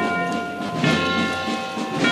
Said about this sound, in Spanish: suenan esas campanas